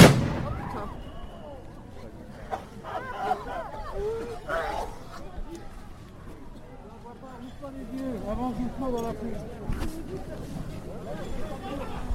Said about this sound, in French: Ça pique grave. Il y a une grenade à droite. C'est contaminant